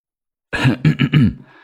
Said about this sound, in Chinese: 过了半晌之后，蒋风奇才从苏千玉的面容当中回过神来，十分不自然的咳嗽了几声